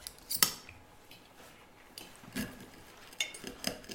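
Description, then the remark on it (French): Cutlery and dishes clink at a dinner table in a dining room as soup is served with a ladle: a sharp metallic clatter at the start, then scattered soft scrapes and a few bright chinks of spoons against plates, with no talking. “Lorsqu'elle sert la soupe, sa louche tremble.”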